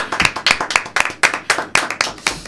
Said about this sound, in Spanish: Bueno, bueno, aplaudamos por favor